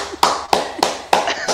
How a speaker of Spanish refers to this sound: Aplausos.